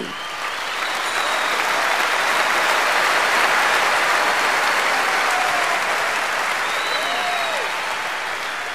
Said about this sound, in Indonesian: Penonton di Universitas de La Rochelle Prancis berdiri dan bertepuk tangan gemuruh di akhir pementasan kami. Sebuah pentas yang sukses membuat penonton Indonesia takjub dan meneteskan air mata karena kisah mengharukan Layon Sari.